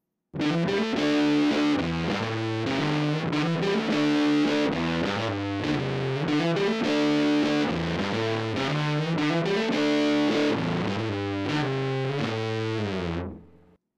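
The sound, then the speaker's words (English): A loud, distorted electric guitar solo, double tracked, with a short slapback echo from an Electro Slapback Echo pedal (gain around 10 o'clock, time switch on shortest setting, blend at noon), playing sustained bent notes and quick runs over steady bass for about thirteen seconds, then cutting off. “You'll notice that the guitar track for this solo is double tracked”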